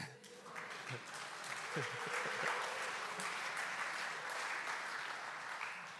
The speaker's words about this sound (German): Bewegendes Licht. Applaus für das Licht.